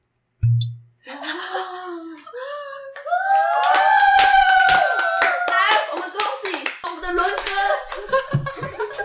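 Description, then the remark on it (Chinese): A group bursts into rapid, loud applause, many hands clapping in a dense patter for several seconds while voices whoop and cheer over it in high, sliding tones. “我觉得刚刚掌声没有灵魂。”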